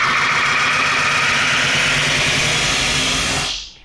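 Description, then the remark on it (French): A loud, harsh squeal of audio feedback from an old live effects machine with no limiter, a sustained piercing tone over a thick wall of noise, holding steady for a few seconds before cutting off abruptly. “Donc le son peut s'emballer, et là bim, gros Larsen dans la gueule de tout le monde.”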